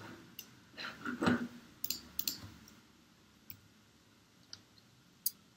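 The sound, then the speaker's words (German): Several sharp mouse clicks sound at irregular intervals, fairly quiet, with a brief cluster of shuffling handling noise early on and no voices, as someone right-clicks a style template on a computer to modify its formatting. “also Rechtsklick auf die Formatvorlage auf Ändern, dann entsprechend Änderungen vornehmen, wie Sie das möchten, OK klicken und dann übernimmt er das”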